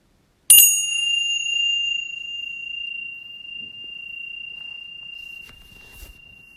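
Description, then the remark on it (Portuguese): A single meditation bell is struck once at the end of a meditation practice, ringing out clearly with a bright attack and a long, steady tone that sustains and slowly fades, with faint rustling near the end. “quando a gente escuta soar o sino, a nossa mente tem reações e a gente volta instantaneamente para o observador e o observador começa a calcular que acabou o tempo, que vai fazer isso ou aquilo.”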